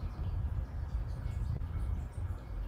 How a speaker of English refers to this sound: it's my cat's water fountain thing. so it's far away.